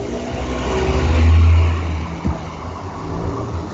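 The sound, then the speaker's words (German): A car engine revs up as the car drives away, swelling briefly in a low rumble before easing off, with no one talking. “Wer fällt gerade mit dem Auto weg hier?”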